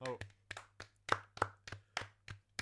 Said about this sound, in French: Oh bah je m'applaudis.